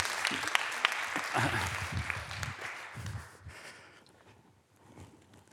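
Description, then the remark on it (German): An audience claps together in a dense burst of applause that holds steady for about three seconds, then thins out and fades to a few scattered claps. “Ähm, ein Applaus für den Mut, wir können alle was davon lernen.”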